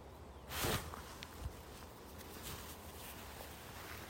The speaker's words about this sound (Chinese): 听听看这个山的宁静，现在听到一些风声，就是有一些松林嘛，哦，松林，然后风吹，就会有一些像是高速公路的声音一样。